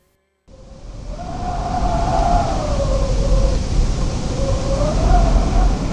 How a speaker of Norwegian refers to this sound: Det blåste sterk vind i ørkenen, og den virvlet opp sanden i ansiktet på de tre kamelene og rytterne deres.